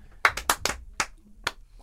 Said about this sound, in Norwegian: Det er ingen som har lyst til å gjøre en applaus. En kort applaus. Military style.